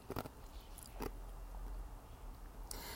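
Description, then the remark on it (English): Crisp crunching as someone bites down on ice, three or so sharp bursts spaced out over a few seconds against a quiet background, with no talking. “Oh, sorry, I'm crunching ice.”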